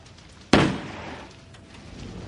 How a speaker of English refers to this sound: Fire your gun and see what they do. Okay. Cover your ears.